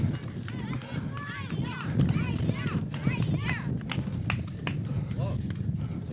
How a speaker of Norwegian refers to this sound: Dere hører sikkert pusten hans. Dette var tyngre enn jeg trodde.